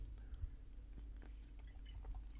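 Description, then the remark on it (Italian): Quiet sips and swallows of water, a few soft wet mouth sounds over a low background hum, with no one speaking. “Tu bevi un po' di acqua, vediamo un po'”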